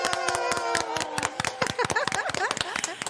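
Steady applause, sharp hand claps in a loose rhythm over a sustained tonal backing, with lively voices rising and warbling through the second half.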